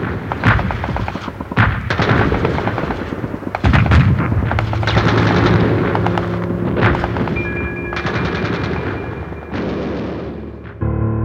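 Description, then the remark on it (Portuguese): A dense battle soundscape of rapid gunfire bursts and heavy booming artillery blasts, loud and continuous for about eleven seconds, with sharp cracks over deep rumbling thuds and a faint whine: Soviet artillery and infantry pounding the encircled German Ninth Army in a forest pocket by the Spree river near the village of Halby. “E o nono exército alemão acabou sendo cercado em um bolsão na floresta às margens do rio Spree, próximos ao vilarejo de Halby, onde estas forças foram marteladas pela artilharia e infantaria soviética.”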